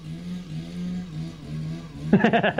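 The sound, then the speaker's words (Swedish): A motorcycle engine drones steadily, then breaks into loud, choppy revving bursts toward the end, as if throttling hard while passing. “The motorcycle walkie-talkie men are coming for you.”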